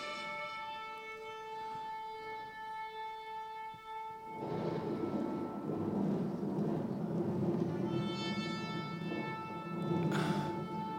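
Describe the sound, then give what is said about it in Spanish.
A long, steady shofar horn blast sounds, fades under a rush of broad noise, then returns near the end, loud and sustained. “Los shofares sonaban, shofares del cielo.”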